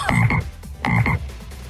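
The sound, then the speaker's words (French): Two loud croaks from a toad, each a rough, throaty double-pulsed call, separated by a short pause, with no voices present. “et j'aurais pu te transformer en en crapaud.”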